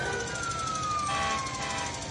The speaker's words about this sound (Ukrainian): Коли це чує за вікном, сирена завила.